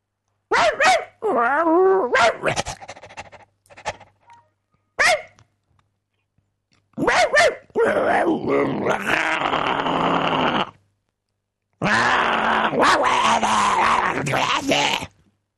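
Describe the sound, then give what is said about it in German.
A dog with a phone held up to it makes a series of grunts, groans and rumbling growls in irregular bursts, with short pauses between them and a couple of longer, rougher stretches. “Kannst du jetzt bitte mal dem Hund das Handy hinhalten?”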